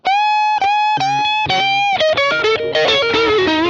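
Electric guitar with distortion, the player switching to the neck pickup from the pickup he had been on to change the texture: a few sustained, singing notes give way to a busier run of quick notes and chords, loud throughout with no talking.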